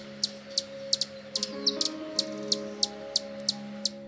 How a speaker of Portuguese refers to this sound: Mestre, pude ouvir o canto dos pássaros, o barulho das folhas, o alvoroço dos beija-flores,